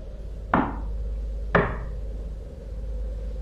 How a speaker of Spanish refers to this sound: Tocaron a la puerta. Yo no quería abrirla ni de broma.